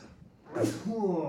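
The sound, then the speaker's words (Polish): A single sharp sneeze, a sudden breathy burst that trails off into a short voiced sound. “Musiałem kichnąć”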